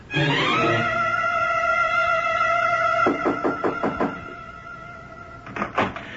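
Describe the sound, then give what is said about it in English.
A steady electric door buzzer drones for a few seconds as a door in New York is buzzed open for a visitor, then a latch clicks and rattles as the door is pushed open, followed by another brief clatter near the end. “Wait a minute. I'll buzz the door for you. Come on up.”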